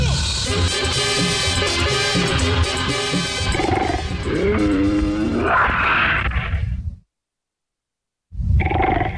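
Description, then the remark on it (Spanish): A loud, rough roar of the Puma, mascot of the National Autonomous University of Mexico (UNAM), played on a radio broadcast; it rumbles and growls for about seven seconds, cuts off abruptly into silence, then bursts back in briefly. No one speaks. “Bueno, ahí está el puma sonando.”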